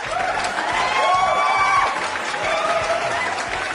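A crowd applauds steadily for a few seconds, a dense wash of clapping mixed with cheering voices and rising whoops, holding an even loudness throughout.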